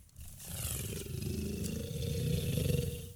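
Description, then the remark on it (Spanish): Loud snoring of a person asleep at night, recorded on video: one long, harsh, rattling rumble held for about three seconds, low-pitched and gravelly, swelling slightly louder toward the end with no talking over it. “Bueno, pues entonces que me enseña este video porque él asegura que yo estuve roncando toda la noche y yo hasta el momento no le creo.”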